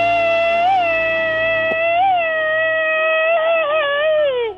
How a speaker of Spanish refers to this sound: No, es mi perrita que está hablando de mí. Oh, era tu perra.